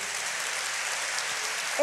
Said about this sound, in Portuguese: Você pode dar uma salva de palmas bem forte para Jesus?